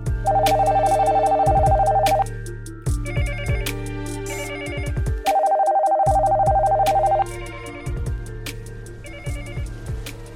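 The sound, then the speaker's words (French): Several telephones ring at once in overlapping electronic trills, a steady high warble broken by repeated ring bursts, loud and busy with no talking; the phone lines of SOBEPS in Belgium on the evening of 19 March 1991. “Ce soir du 19 mars 91, les lignes téléphoniques de la SOBEPS sont encore une fois prises d'assaut.”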